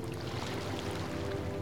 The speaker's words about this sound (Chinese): 此起彼伏的海浪声，让人胸怀开阔，轻松自在。